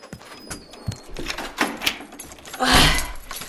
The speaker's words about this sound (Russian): иди открой дверь. Сейчас, сейчас.